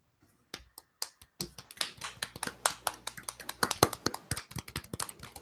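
Soft hand clapping to mark reaching a thousand subscribers, kept not too loud: a couple of isolated claps, then a quick, fairly even run of light, sharp claps that grows slightly denser toward the end, all at a gentle level with no talking.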